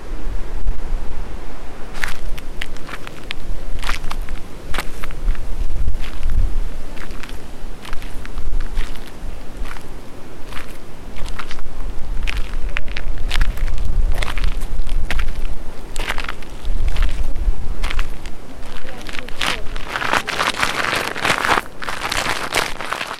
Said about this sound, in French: Marche le long de la rivière.